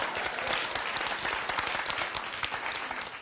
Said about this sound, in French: Oui, oh, il faut applaudir, ça va assez bien, merci.